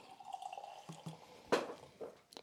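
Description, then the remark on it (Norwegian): A dark beer, aged in whisky barrels with a light smoky note, splashes and gurgles into a glass and foams well, with a steady trickle broken by a few louder drips and glugs, including one sharp burst partway through; no one speaks. “Ta litt mindre i glasset ditt.”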